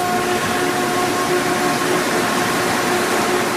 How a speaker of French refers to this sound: Prochaine station, Montmorency. Attention, une porte retenue ou bloquée empêche le départ du train. Monsieur, votre sac bloque la porte.